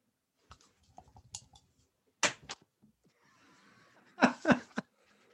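A small die, thrown under a table, clatters and bounces across a hard surface in a scatter of sharp clicks and knocks, fairly loud, with a few quieter rattles and some soft laughter between the impacts; it shows a 4.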